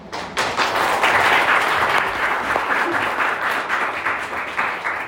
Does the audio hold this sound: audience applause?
yes